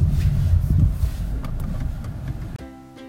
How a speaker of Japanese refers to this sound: はいといったところでちょっとですね車の雑音が大きくてお聞き苦しかったと思いますがここまでお聞きいただきありがとうございました